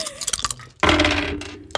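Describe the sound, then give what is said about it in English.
Dice rattle in a quick burst of sharp, irregular clicks, then tumble into a louder, sustained clattering roll before settling, ending with one last faint click. “I've rolled my dice.”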